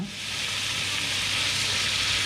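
A chef frying a few dozen mealworms in butter in a pan, mixing in pasta made of mealworm flour and sweet potatoes: a steady, bright crackling hiss that holds at an even loudness throughout, with no talking over it.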